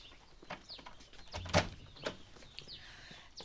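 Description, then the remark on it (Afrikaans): A door opens for an early visitor with a sharp clunk partway through, followed by a softer knock, while birds chirp faintly in the background. No one speaks. “Ag, wie kom kuier so vroeg?”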